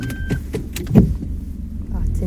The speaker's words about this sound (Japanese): 山道で前から車が来てしまいましてすれ違い今バックしております